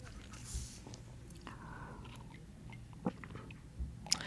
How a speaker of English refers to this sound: There is a little fan. I hear it as well. Wait. Yeah, we have air conditioning noise. Uh, let me let me see if we can turn it off for the duration of the interview.